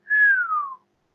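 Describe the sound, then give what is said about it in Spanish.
A single eerie whistle, one long clear tone sliding slowly downward in pitch for under a second before cutting off, heard alone with no voices or other sounds around it. “Están en el bosque o están en los llanos, están solos y oyes desde lejos el silbón.”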